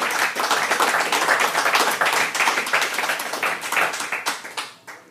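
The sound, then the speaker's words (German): Sustained audience applause welcoming guest Piwi Windmüller, a dense wash of many hands clapping at once, fairly loud, thinning out and fading away over the last second. “Applaus für den Piwi Windmüller.”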